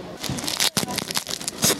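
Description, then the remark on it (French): Well-wrapped parcel packaging being ripped open: a rapid series of loud, crackly tearing and crinkling bursts of plastic or paper, with a brief pause partway through and no talking. “Ils sont bien emballés.”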